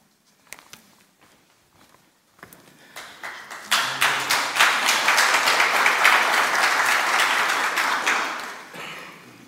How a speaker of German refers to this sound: Ihr klatscht nicht für mich, ihr klatscht für Daniel Schneider, wer ihn kennt.